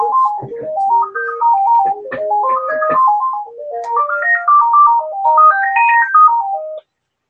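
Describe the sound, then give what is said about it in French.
A mobile phone ringtone plays a bright electronic melody of quick rising and falling notes, loud, repeating its tune for several seconds before stopping abruptly as the phone is switched off. “Attends, un je coupe mon téléphone.”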